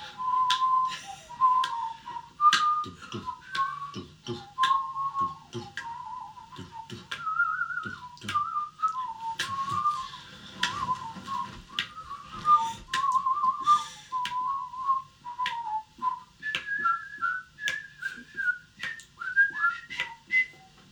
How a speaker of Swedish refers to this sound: Jag börjar vissla på samma melodi som du liksom har stått och sjungit.